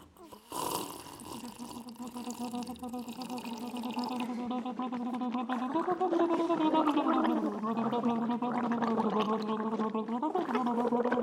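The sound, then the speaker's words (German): Loud gargling with water from drinking glasses as a sound improvisation, a voiced bubbling drone that starts after a short slurp and continues steadily, wobbling in pitch for about ten seconds. “Ähm, äh, Soundimprovisation, Schlürfen, Schlucken, Gurgeln, äh, Seufzen ähm, mit Wasser.”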